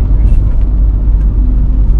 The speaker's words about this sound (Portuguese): Achei que iria ter um bocadinho mais de barulhos, barulhos externos, nomeadamente o barulho do motor, o barulho da chuva, que também poderá dar claro, outros, outros barulhos extras, buzinas, piscas, coisas assim.